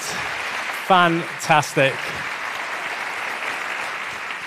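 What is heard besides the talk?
audience applause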